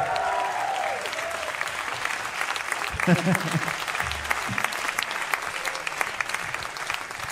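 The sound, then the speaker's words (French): A live crowd at a concert broadcast on radio applauds steadily with dense, continuous clapping and scattered cheers and whoops, some laughter rising briefly in the middle, loud and sustained throughout. “Et le public est chaud, je pense que vous l'entendez.”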